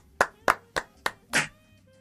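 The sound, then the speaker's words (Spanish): Five sharp hand claps in a steady, slightly slow rhythm, the last one fuller and longer than the rest, with no voices over them. “¡Un aplauso!”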